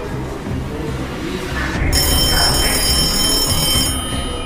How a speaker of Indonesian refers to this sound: Pukul 6 sore lewat 40 menit, telepon di markas besar polisi Saarbrücken berdering.